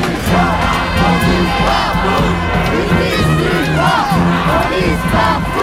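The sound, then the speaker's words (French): A large crowd of protesters, gathered against a law and for many other demands, shouts and chants together, a dense, loud wall of overlapping voices with rising cries that stays steady throughout. “Tu vois les gens qui sont rassemblés ici, ils ne sont pas uniquement ici pour cette loi.”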